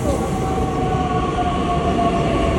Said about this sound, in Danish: Så kommer toget.